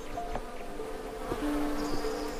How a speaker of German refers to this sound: Vorbei an Blüten, anderen Schmetterlingen, fleißigen Bienen